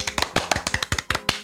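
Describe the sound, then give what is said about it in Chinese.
A short burst of hand clapping, about a dozen quick, sharp claps in a steady, slightly uneven rhythm with no talking over it. “非常高兴能够来到多云转晴做客，鼓掌。”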